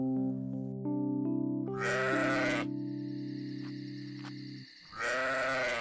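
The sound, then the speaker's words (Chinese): Two loud, wavering bleats from sheep watched by shepherds in the hills outside Bethlehem, one early and one at the end, ring out over a steady, sustained musical drone that fades just before the second call. “Shepherds looked after their sheep.”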